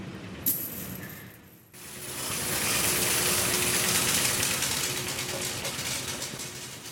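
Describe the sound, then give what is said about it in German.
Hundreds of new, gleaming euro coins pour into a collecting bin in a dense, continuous metallic clatter and jingle, steady and loud for several seconds over a low machine hum, with no voices. “Während die neuen blitzblank funkelnden Euromünzen zu Hunderten in den Auffangbehälter fallen”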